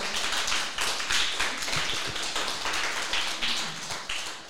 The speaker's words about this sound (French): on peut applaudir notre premier chroniqueur de l'année